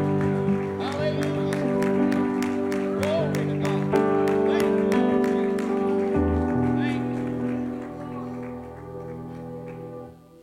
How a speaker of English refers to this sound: I believe He deserves a great hand clap of praise in this place tonight.